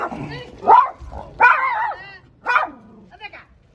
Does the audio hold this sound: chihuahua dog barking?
yes